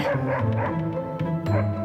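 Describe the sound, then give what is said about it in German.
Several stray dogs roaming the streets at night bark and yelp in a dense, overlapping chorus, loud, with barely a pause between calls. No one speaks. “Damals gab es ja viele wildstreunende Hunde. Sie machten des Nachts in den Straßen die Runde.”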